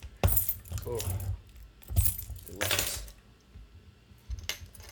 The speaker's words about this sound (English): So right now I'm gonna crack this beer that I've been, I've been like kind of curious about for a long time, and basically, so Goose Island, Chicago, since 1988.